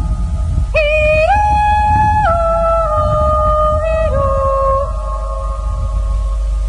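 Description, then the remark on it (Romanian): Recorded outdoors on a mountain meadow, not in a studio: wind rumbles and buffets steadily through the whole recording, low and rough, beneath a loud, sustained tonal call that holds several long notes and steps between pitches. “Se aude vântul.”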